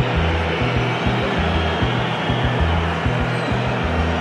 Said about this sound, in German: Die Pfiffe, die Sie hören, kommen aus der türkischen Ecke und sind gegen Özil gerichtet.